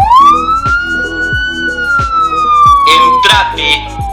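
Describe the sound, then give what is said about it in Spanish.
A loud, wailing curfew warning siren in Río Gallegos, Santa Cruz, marking the stop of circulation from 21:00, rises slowly in pitch, holds, then gradually falls, droning continuously over rhythmic low thumping and faint background voices. “En Río Gallegos, sirenas marcan el cese de circulación a partir de las 21 horas.”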